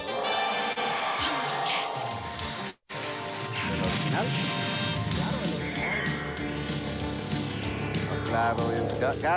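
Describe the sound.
A loud, busy animated-series intro theme plays throughout, dense and energetic with crashing, impact-like effects and voices mixed in, briefly cutting out for a moment early on before surging back.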